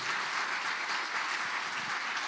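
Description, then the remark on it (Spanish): An audience applauds Jesus, many hands clapping together in a dense, continuous wash of sound at a fairly even level, with no voices standing out. “Dar un aplauso a Jesús ahí.”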